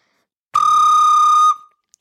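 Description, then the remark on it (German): A single flute note played with flutter-tonguing, blowing into the flute while rolling an R with the tongue, held for about a second, loud, with a slight rough wavering, then breaking off into a short breathy tail. No one speaks. “also man muss quasi reinblasen und gleichzeitig irgendwie probieren, Flatterzunge zu machen.”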